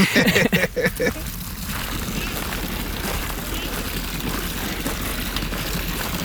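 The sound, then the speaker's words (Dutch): Water jets from trick fountains spray and splash in a steady hiss that fills the scene, with brief voices and bumps at the start before the rushing water takes over. “Nou, we staan bij de bedriegertjes.”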